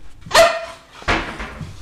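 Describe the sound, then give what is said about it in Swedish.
A bull terrier named Vivi barks twice, two sharp, loud barks about three-quarters of a second apart, with no talking around them, in its owner's apartment on the fourth floor of a building in central Jakobstad. “I Evas lägenhet bor också hennes hund, bullterriern Vivi.”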